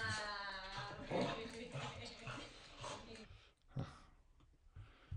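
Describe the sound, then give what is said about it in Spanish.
A dog whimpers in high, thin whines at the start, followed by quieter snuffling and yips as a person talks over it, during a play exercise for the dog's emotional control after it has lost twice. “Porque hay que dejar, que, gane el perro.”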